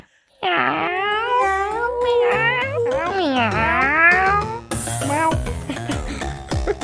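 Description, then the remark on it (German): Several people meow together on a count of three in a loud, drawn-out chorus, sliding up and down in pitch like cats, followed by a burst of laughter and rustling. “Und, äh, und, und, auf, und auf drei werden wir jetzt alle selig miteinander miauen.”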